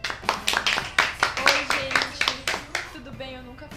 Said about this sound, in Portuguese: Saúde, palmas.